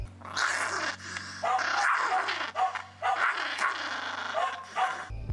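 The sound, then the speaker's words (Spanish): A dog snarls and barks aggressively in several long, loud bursts separated by brief pauses, with no one talking. “o al que te muestra los dientes, te muerde y te gruña.”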